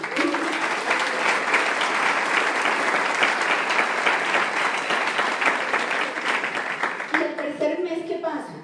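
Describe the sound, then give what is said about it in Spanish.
A crowd applauds the corporation loudly and steadily for several seconds, a dense wash of clapping that fades near the end as a voice begins speaking. “Así que un aplauso para la corporación.”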